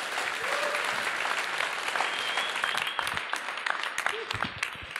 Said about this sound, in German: Lass einen herzlichen Applaus geben für das, was du uns bringen wirst. Schön, dass du da bist.